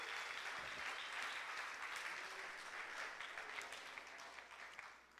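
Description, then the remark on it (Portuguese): A crowd applauds steadily, applauding the Lord for the lives of their disciplers: a dense wash of many hands clapping at once that stays loud throughout and tapers only slightly at the end, with no talking over it. “Vamos aplaudir o Senhor por, pela vida dos nossos discipuladores.”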